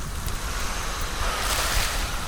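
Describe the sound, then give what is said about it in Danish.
Firefighters' fire hose sprays water onto a burning fire in a steady, rushing hiss that stays loud throughout, with a low rumble underneath and no voices. “For det kan være svært at høre hinanden, når ilden brænder og vandet sprøjter.”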